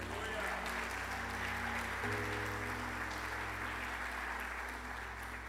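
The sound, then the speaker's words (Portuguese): An audience applauds the Lord steadily for several seconds, a dense wash of clapping over a low sustained organ or keyboard drone that shifts pitch midway. “Você pode aplaudir o Senhor por isso?”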